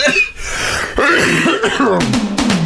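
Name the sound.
coughing fit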